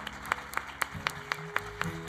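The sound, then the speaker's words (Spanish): A church audience claps in steady unison, applauding Jesus for those who raised their hands, about eight sharp beats at an even, quick rhythm, over a soft sustained musical drone. No one speaks. “Vamos a dar un aplauso a Jesús por estas manos que se han levantado.”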